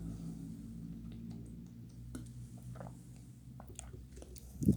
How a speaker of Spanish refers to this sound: Ahora la digo, me voy a tomar un trago de agua.